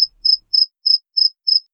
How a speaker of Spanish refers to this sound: un cuarto lleno de herramientas, hasta tenemos grillo guardián.